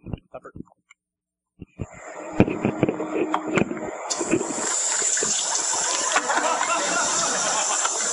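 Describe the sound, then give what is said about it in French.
Diarrhea splashes into a toilet: a few scattered plops and drips, then a steady gushing splatter that swells louder midway and keeps pouring to the end, with no talking. “Ça, c'est la diarrhée à fil, le bruit qu'on entend.”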